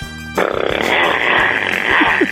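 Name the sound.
voice imitating a motorcycle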